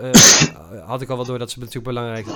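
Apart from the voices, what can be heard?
sneeze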